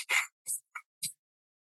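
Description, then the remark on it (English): Four rapid, forceful breaths, sharp hissing bursts pushed out in quick succession, fairly loud, the first one longer and the rest short and clipped, with no talking; a person doing a fire-breathing breathing exercise in the morning. “This morning I did I did fire breathing.”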